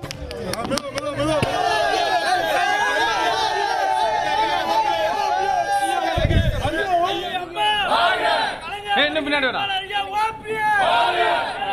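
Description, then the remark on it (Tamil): A crowd of supporters gathered in front of O. Panneerselvam's (OPS) house cheers and shouts continuously, many voices overlapping in loud, excited chanting and yelling, with a burst of rumbling noise midway through. The supporters are celebrating, bursting firecrackers and handing out sweets. “OPS வீடு முன்பு திரண்ட ஆதரவ ஆதரவாளர்கள் உற்சாகம் பட்டாசு வெடித்தும் இனிப்புகளை வழங்கியும் உற்சாகம்”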